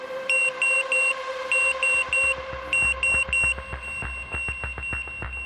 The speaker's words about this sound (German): Also ein Notfallsystem, das Alarm schlägt, wenn zwei Züge aufeinander zurasen. So laut, dass man es nicht überhören kann.